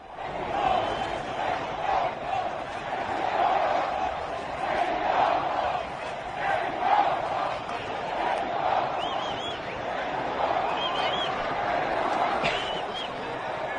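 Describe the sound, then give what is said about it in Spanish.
A large crowd at the Hermanos Rodríguez race track in Mexico cheers and roars continuously, a dense wash of many voices with scattered shouts and whistles rising above it, staying loud and steady throughout. “Escuchen además, este es el ambiente que se vive aquí en el hermano Rodríguez.”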